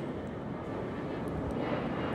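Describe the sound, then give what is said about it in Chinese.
A steady, loud airplane engine roar as the Swallow plane departs the airport for the southern islands, a broad low rumble with a constant hissing wash above it and no talking over it. “欢迎来到机场，燕子飞机即将飞往南方的岛屿。”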